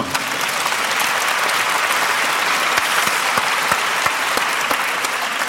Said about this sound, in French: Voilà, Raphaël Navarro, vous pouvez l'applaudir.